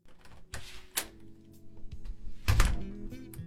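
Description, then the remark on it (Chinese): The door of a home opens with a series of mechanical clicks and knocks, a sharp latch snap early on and a heavier thunk near the end, with faint rattling in between. “苏浅回到住的地方，打开门就看到靠在沙发上的厉天晴”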